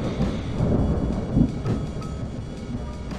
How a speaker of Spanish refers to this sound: y ya que la lluvia se hace presente, voy a continuar con algo de música dedicada a la lluvia.